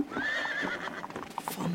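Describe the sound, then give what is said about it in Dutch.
Many horses neigh and whinny over a busy patter of hoofbeats, clip-clopping together at a steady pace with no talking. “Hoefgetrappel”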